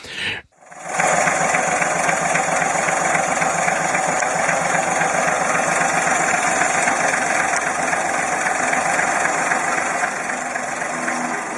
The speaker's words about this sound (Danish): Den her lille lydstump er øh, en motor i tomgang fra en Opel Kaptajn eller en Opel Kapitän fra 1939.